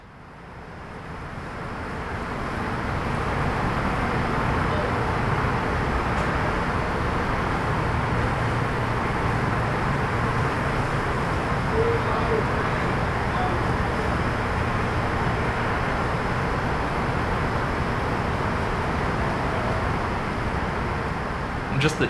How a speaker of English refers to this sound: Like uh, one of the recordings is in my backyard in uh, Los Angeles, so there's a lot of traffic noise around.